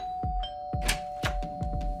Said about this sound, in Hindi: मैं अपने कमरे में पार्टी की तैयारी के लिए सजावट थोड़ा सामान रीअरेंज और ड्रिंक्स का इंतजाम कर रहा था और तभी मेरे दरवाजे की डोर बेल बजी